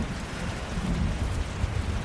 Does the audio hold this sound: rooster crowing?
no